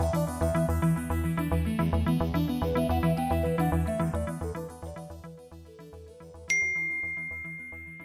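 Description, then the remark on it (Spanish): Instrumental music plays and gradually fades, then a single bright ding from a small bell strikes near the end and rings out with a clear, sustained high tone. “Bueno, campanita, esto se significará, ya con, el tiempo iréis conociendo nuevo formato, nuevos sonidos, nuevas secciones en un futuro,”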